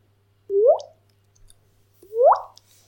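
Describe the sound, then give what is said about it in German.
Two bubbly, rising 'bloop' water-drip sounds made with the mouth, about a second and a half apart, fairly loud. A faint steady hum runs underneath, with no talking. “Mach, mach mal diese Bubble.”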